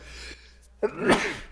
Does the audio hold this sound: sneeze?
yes